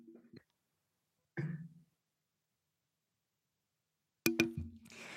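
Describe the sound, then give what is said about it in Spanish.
A person coughs, a short throaty cough followed after a pause of a few seconds by a louder, harsher burst of coughing. Nobody speaks. “Perdón, voy a toser.”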